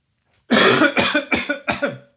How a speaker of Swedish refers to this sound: Ursäkta, nu är den här kokiliana-hostan eh, tillbaka.